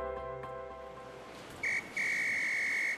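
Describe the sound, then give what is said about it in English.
A lifeguard at a beach blows a whistle while pointing, directing people to move further down the beach: two loud, shrill, steady blasts, a short one, then a longer sustained one, over a soft wash of background noise. “Um, is the lifeguard pointing and blowing his whistle at us?”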